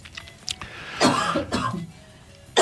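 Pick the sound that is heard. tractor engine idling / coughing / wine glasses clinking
coughing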